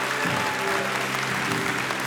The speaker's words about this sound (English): Come on, let's give all of those people a great clap of encouragement.